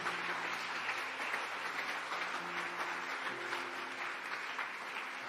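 Sustained audience applause, a dense, steady wash of many hands clapping at an even loudness throughout, with a faint low hum of voices or music underneath.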